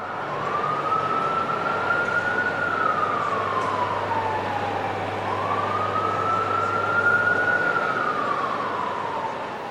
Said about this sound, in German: in Amerika einfach das Fenster aufzuhaben, weil alles, was du hier kennst an Sirenen oder wie so eine Stadt klingt, ist da halt anders. Es hat immer noch was wie aus einem Film. Irgendwie eine ganz andere, fast schon künstliche Welt.